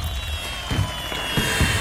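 fireworks sound effect

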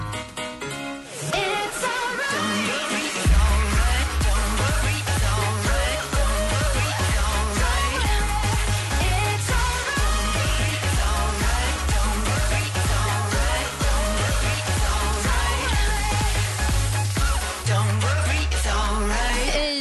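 pop song

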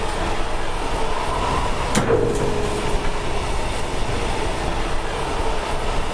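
moving train

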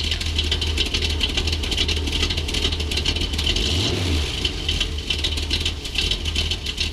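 electric car driving

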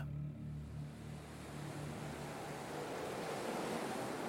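stormy ocean waves

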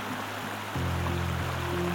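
river water flowing

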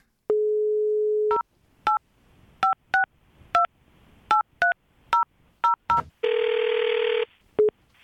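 telephone dialing and ringing

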